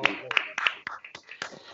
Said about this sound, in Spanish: Venga, vamos a aplaudir.